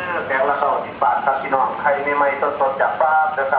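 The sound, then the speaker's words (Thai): A tinny, amplified voice blares a looping announcement through a loudspeaker, sounding muffled and band-limited: a mobile grocery truck parked in front of a house, heard from inside a room. “และบางวันก็มีเสียงรถพุ่มพวงที่จอดประกาศวนลูปจากหน้าบ้านด้วย”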